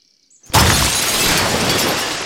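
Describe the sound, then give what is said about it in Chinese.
After near-silence, Sima Guang smashes a water vat with a stone in one sudden, loud crack, followed by a steady, dense rush of water flowing out that holds for about two seconds with no voices. “司马光把水缸砸破了， 水流出来了，这样缸里就没有水了，阿毛就不会溺水了。”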